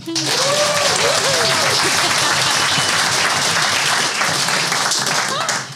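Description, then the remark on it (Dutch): Loud, sustained applause from a crowd in a café, greeting the name of the law firm Ploem advocaten en notarissen, a dense wash of clapping that holds steady for several seconds, with a few cheering voices rising over it near the start before tapering at the end. “Want menigmaal heeft in, deze, in dit café, heeft, als jullie naam klonk... was er een ovationeel applaus. Ik ga even kijken of dat nog werkt.”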